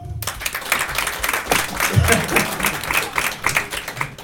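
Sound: audience clapping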